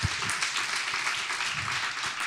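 A crowd applauds a guest performer steadily on the third night of the event, dense overlapping claps forming a continuous bright wash of sound at an even loudness throughout, with no voices standing out.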